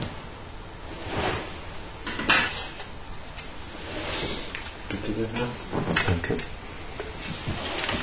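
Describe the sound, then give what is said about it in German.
Cutlery being swept together softly, a steady metallic rustle and scrape broken by a few sharper clinks, with a faint voice murmuring partway through. “Das fege Besteck.”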